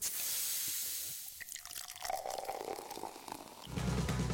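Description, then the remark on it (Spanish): A 7-Up soda bottle cracks open with a sharp fizzing hiss, then liquid pours and bubbles steadily into a glass, clear with no voices. “Advertencia escuchar el siguiente sonido puede ocasionar unas ganas incontrolables de destapar una 7-Up.”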